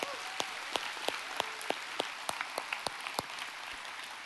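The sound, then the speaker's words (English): An audience applauds a panel, a steady wash of many hands clapping with sharper individual claps popping out irregularly, moderately loud and sustained through the whole stretch without any talking. “Would you help me appreciate our panel again?”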